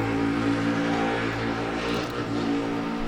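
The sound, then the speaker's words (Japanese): A motorcycle engine passing outside drones steadily with a low, rough harmonic rumble, holding a fairly constant pitch and loudness throughout, with no talking over it. “バイクがすごいね かなりこれ今入ってるだろうねこれね”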